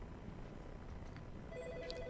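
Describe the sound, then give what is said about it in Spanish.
A telephone rings for an incoming call from a pastor, its electronic tone pulsing in short repeated bursts that begin partway through over a steady background hiss; no one speaks. “Ahí está, ahí está la llamada.”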